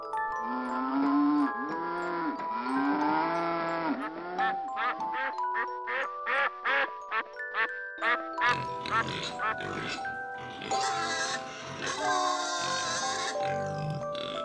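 A duck quacks over and over in a quick, nasal series: stretched honks at first, then a run of short, clipped quacks, with busier sounds crowding in toward the end.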